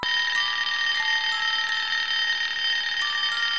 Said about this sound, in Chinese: 电话响了。